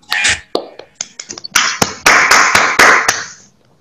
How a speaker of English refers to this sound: Please give applause by online for the speakers and for all of you.